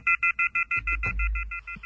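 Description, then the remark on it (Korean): A telephone line gives a rapid, steady series of about a dozen short electronic beeps after the call drops. The beeps are fairly loud and clear, with a low rumbling noise entering partway through. “전화는 끊겼지만 아쉽습니다.”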